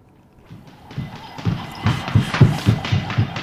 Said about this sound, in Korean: 이게 오늘 보물소리인데요. 이게 줄넘기 소리입니다. 네, 줄넘기.